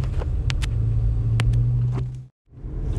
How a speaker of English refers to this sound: Sorry about the noise right now. I am currently in my vehicle